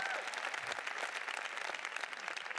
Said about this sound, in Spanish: Si ese es el aplauso, dáselo más fuerte. Si ese es el aplauso, dáselo más fuerte.